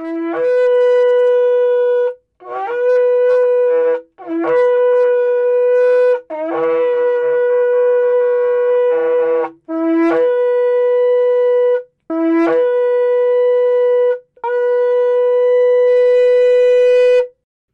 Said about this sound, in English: the sound of the shofar really inspires me. My, my spirit jumps when I hear the shofar.